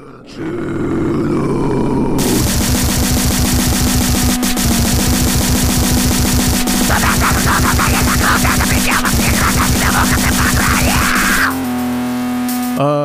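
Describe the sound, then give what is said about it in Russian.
A blast of extreme goregrind: rapid pummeling drums and distorted guitar under guttural grunting vocals, loud and chaotic, with a brief intro before the band kicks in and a sudden shift near the end. “ну, нужно сказать, что песни это, наверное, самая слабая сторона этого коллектива.”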